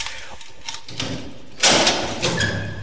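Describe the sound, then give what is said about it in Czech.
A heavy metal prison cell grate clatters open, then lands a loud slam followed by a thin, grinding creak as it settles, without any talking. “Otevření, zaskřípání katru, vzdálený pláč, sténání a prozby vězňů, pak zabouchnutí a chůze dozorců k další cele.”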